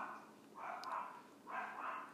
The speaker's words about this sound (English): the little dog's going crazy. That means that little dog is barks every single day.